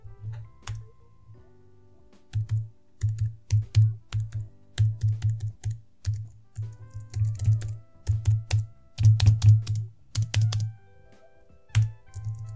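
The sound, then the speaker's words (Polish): Steady typing on a laptop's low-profile, non-mechanical keyboard, soft muted key clicks in quick bursts with brief pauses, moderately loud, no voices. “E, bardzo podoba mi się dźwięk i skok klawiszy.”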